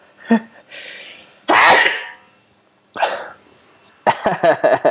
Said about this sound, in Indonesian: lumayan lah ya bersin